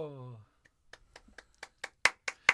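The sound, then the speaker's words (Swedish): A short voiced sound opens, then about ten sharp hand claps follow in a steady, quickening rhythm, growing from soft to loud, like a brief round of applause from a single pair of hands. “Och en liten applåd här.”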